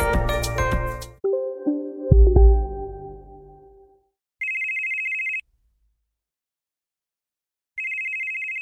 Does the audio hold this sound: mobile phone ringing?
yes